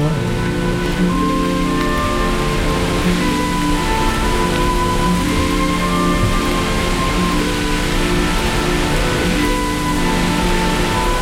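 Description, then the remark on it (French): Rainwater leaking in through a factory roof after heavy rain and a Cévennes flood makes a steady patter and trickle that runs unbroken throughout, fairly loud, with a faint low hum beneath and no voices. “Et il y a des infiltrations d'eau qui sont venues par le toit.”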